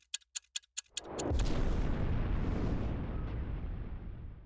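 A quick series of sharp clicks gives way to a massive, deep explosion that roars and rumbles on steadily, like a huge atomic bomb blast. No voices are heard.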